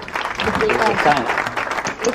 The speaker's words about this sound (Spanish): Bueno, muy bien, muy bien. Un aplauso.